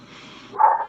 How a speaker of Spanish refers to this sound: mi perro es un plomazo como ladra, bueno, uno de mis perros, ¿no? Porque tengo tres.